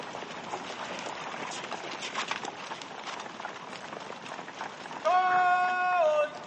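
A dense, steady clatter of many horses' hooves as a group of armed soldiers on horseback advances along a wide snowy street in Kiev by day, then a loud sustained whistle-like tone with a slight upward bend cuts in near the end.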